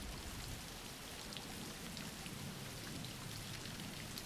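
Steady rain falls in a continuous, even hiss of many drops pattering on a surface, with a soft low rumble underneath and no voices.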